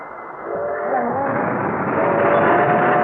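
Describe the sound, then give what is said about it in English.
A train draws near a railroad crossing with a steady, rushing rumble that swells louder over a few seconds, thin horn-like tones drifting through the roar; no voices. “Is that the train? Yeah, it's just at the crossing.”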